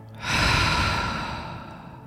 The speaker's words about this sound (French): Inspirez. Retenez votre respiration et contractez légèrement tous vos muscles de votre visage jusqu'à vos pieds. Soufflez pour chasser toutes vos tensions.